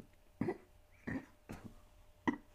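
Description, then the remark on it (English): Four short burps spaced irregularly over a couple of seconds, each a quick throaty gulp of sound with quiet pauses between and no talking. “Um, oh, excuse me, I got a burp brewing.”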